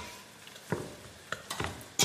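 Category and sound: food or drink, butter sizzling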